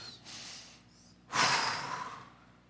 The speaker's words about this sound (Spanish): Tu pueblo está respirando, Señor, respirando la salud de Dios. Respira la salud de Dios.